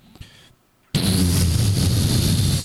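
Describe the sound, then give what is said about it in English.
After a brief near-silent pause, a voice bursts into a loud, sustained rumbling fart imitation, a buzzy low blast lasting nearly two seconds before cutting off. “I just push out this. Only I could hear it, this rumbling fart that as it, as the actual air mass left my body, I could feel my actual butthole get warm.”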